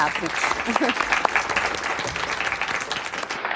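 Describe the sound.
An audience applauds steadily for several seconds, a dense crackle of many hands clapping at once, with some voices and a few brief tones mixed in underneath.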